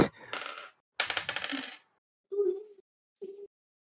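Dice for a luck roll in a role-playing game clatter and rattle across a hard surface in two quick, busy bursts, followed by two short, hummed-sounding vocal noises.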